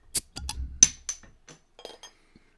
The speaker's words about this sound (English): this is actual beer being poured live on air.